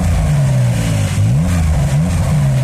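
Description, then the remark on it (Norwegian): A 480-horsepower sports car engine revs through a throaty sport exhaust, its pitch rising and falling in quick bursts, loud, with no voices over it. “Inkludert i denne prisen får du nå et stivere understell, aktive motorfester, større bremser og sportseksos, i tillegg til selvfølgelig en sprekere motor”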